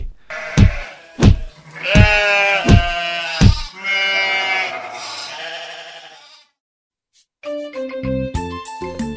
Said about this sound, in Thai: ถึงแม้ตัวเองจะเห่าไม่ได้เหมือนสุนัขแต่ก็ส่งเสียงร้อง เพื่อให้เจ้าของบ้านรู้ตัวว่ากำลังจะมีภัยเข้ามาที่บ้าน แต่จากความไม่เข้าใจของผู้เป็นเจ้าของ กลับเห็นว่า เสียงร้องของแพะเป็นสิ่งที่น่ารำคาญ